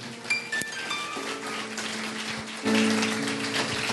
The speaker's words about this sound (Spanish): ¿Cuántos le dan un aplauso a la palabra de Dios? Amén.